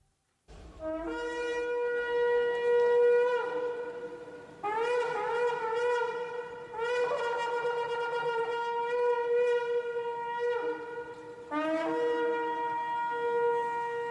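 A shofar (ram's horn) is blown by the projectionist in a series of long, loud, buzzy blasts, each sustained note rich in overtones with slight pitch bends, separated by brief breaks and no voices.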